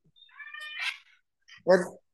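Cats meowing: a thin, high-pitched drawn-out mew, then after a short pause a louder, fuller meow that cuts off abruptly.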